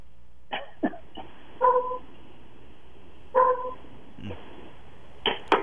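A dog gives two short, muffled barks a couple of seconds apart, sounding thin and band-limited as if over a phone line, with a few sharp clicks and knocks around them.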